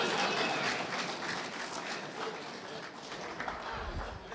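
A crowd applauds steadily, a dense, even wash of many hands clapping that holds at the same strong level for several seconds, with a low thump near the end.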